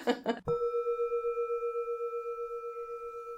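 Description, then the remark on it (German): A brief burst of voice, then a gong is struck once at the end of a Metta meditation exercise and rings out with a steady, shimmering hum that pulses gently as it slowly fades. “Jetzt bräuchten wir einen Gong.”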